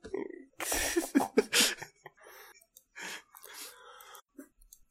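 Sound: coughing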